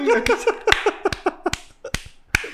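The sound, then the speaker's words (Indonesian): Sharp hand claps, about nine of them, land in an uneven rhythm, some close together and others spaced out, over a lively, laugh-like voice murmuring underneath. “yang V8 misalkan V8 yang ketemu wow tepuk tangannya anjing”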